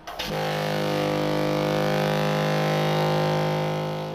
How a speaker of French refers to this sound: Attachons-nous d'abord à la première partie. Je commence avec le son du bateau.